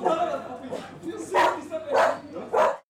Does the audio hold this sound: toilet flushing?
no